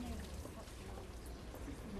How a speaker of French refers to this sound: un robinet collectif au milieu de la rue où les gens font leur linge, lavent leur linge.